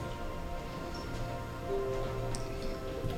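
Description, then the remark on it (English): Soft, scattered rustling of many Bible pages turning at once as the Book of Job, chapter 14, is announced: a faint crackly shuffle with a few brief ticks over a low hum, no voices present. “I hear some pages turning.”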